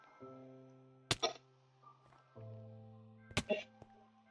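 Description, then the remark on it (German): Two sharp video game arrow hits land a couple of seconds apart, each a quick thwack with a short rattling tail, over a steady low droning background of game music, as the player's character is shot down from up high by an arrow. “Bro, ich wurde mit einem Pfeil runtergeschossen.”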